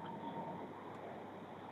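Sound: train interior ambience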